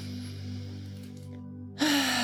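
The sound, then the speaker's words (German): A slow, deep breath drawn in through the nose during a breathing exercise, soft and airy over a steady low musical drone, then cut off by a sudden louder rush of breath near the end. “Atme nochmal tief ein durch die Nase.”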